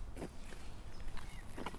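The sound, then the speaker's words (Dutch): Two people walk through a quiet park, soft footsteps crunching along a path at an unhurried, irregular pace, a handful of steps against a quiet, faintly hissing outdoor background with no talking. “Want we lopen hier echt met z'n tweeën in het park.”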